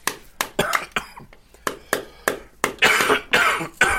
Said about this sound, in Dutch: Oh man. Ik hoest al sinds, eigenlijk sinds eh, een dag voor nieuwjaar of zo. Jesus. Je krijgt er wel enorme buikspieren van.